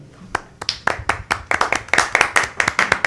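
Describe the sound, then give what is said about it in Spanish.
Hands clap in a steady, sharp rhythm after a live song performed with voice and guitar, a few people's claps overlapping more densely as it goes on, with no music or voices alongside. “No, sé si aplauden los temas pero no sé, pero porque la voz y la guitarra también fenomenal.”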